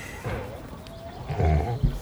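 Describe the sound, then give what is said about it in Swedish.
A pig grunts happily a few times in low, short bursts while being patted, loudest near the end, set against a soft background hum with faint voice-like murmuring. “bland andra klappa en, en gris som grymtade glatt i bakgrunden där.”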